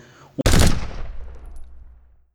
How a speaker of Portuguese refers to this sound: uma rajada de fuzil da AK-47 do menor, que dispara até 600 tiros por minuto, de grosso calibre e que é capaz de inutilizar um automóvel com seu poder de fogo